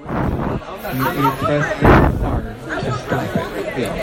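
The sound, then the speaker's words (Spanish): Indistinct chatter from people in an Apple store class on how to use the Apple Watch carries steadily through the whole stretch, a murmur of overlapping voices with no clear words, moderately loud. “En este momento les cuento, no sé si escuchan este, alguien hablando.”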